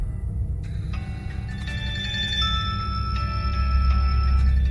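A mobile phone ringtone plays a bright, repeating melodic pattern of sustained tones over a steady low hum, moderately loud, with no one speaking; the phone rings in the morning around 8 o'clock, waking its sleeping owner, with an incoming call from a friend.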